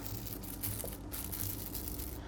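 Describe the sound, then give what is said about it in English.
Continuous crinkling of a plastic bag of flour being squeezed and pushed into a jar to get the air out, a dense rustling texture that holds steady for a couple of seconds with no voices. “So I'm going to get as much air out of there as I can and kind of form it into a little circle and kind of jam it into your jar.”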